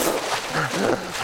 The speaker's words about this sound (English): This is the sound of a man who unexpectedly fell into cold water and instinctively is trying to swim hard.